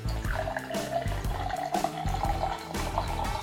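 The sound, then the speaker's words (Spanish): Beer pours steadily into a glass for a few seconds, a continuous liquid gurgle with a rising fill tone, heard over background music. “Para conocer de cerveza es importante leer, pero lo principal es destapar, servir”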